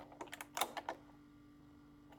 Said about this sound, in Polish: Wkładasz klucz do zamka.